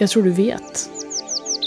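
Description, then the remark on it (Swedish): A bird chirps repeatedly in the background, a steady series of short, high, rapid tweets, while a person speaks briefly at the start. “Du kan höra att fåglarna i bakgrunden börjar tystna.”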